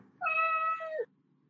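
A single clear cat meow lasting nearly a second, with a steady tone that bends downward at the end, over a faint low background hum.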